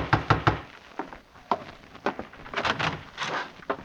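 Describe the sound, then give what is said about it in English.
Someone knocks on a wooden door: a quick burst of three loud raps, then scattered heavier knocks at uneven intervals, with no voices. “Open! Open the door!”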